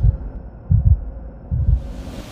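A low, muffled heartbeat thumps in steady lub-dub pairs, three beats across the span, deep with nothing else over it.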